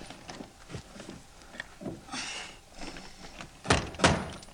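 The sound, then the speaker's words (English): A stuck door is yanked and rattled as people try to open it, with scattered clunks and scraping building to two loud, sharp thuds near the end. No one is talking. “Let me get that door for you here. can't be this stuck.”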